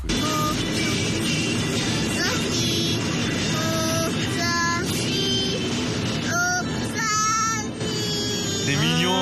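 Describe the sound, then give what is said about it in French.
A three-year-old child sings the jingle of the radio station Nostalgie, a short, wavering melody in high, sliding notes, over a steady low rumble, sitting in a car stopped while waiting for someone. “Il a 3 ans et déjà à cet âge-là, il est fan de Nostalgie au point de chanter le jingle.”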